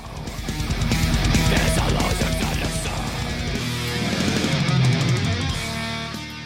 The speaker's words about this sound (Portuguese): E a gente acabou de escutar uma música dos convidados aqui. Qual que é o nome da música?